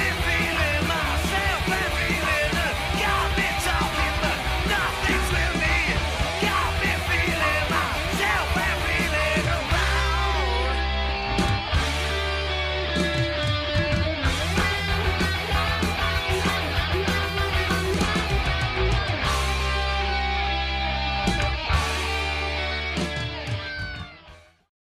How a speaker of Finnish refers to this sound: sitten tulee biisi Toka Kertsi. Tämäkin on taas näitä tämmöisiä jotain kappaleen niin kuin pieniä nyansseja, että siinä niin kuin rumpukompit ja muut elää verrattuna siihen ensimmäiseen kertsiin.